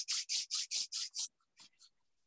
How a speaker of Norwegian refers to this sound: Og nå gni håndflatene mot hverandre.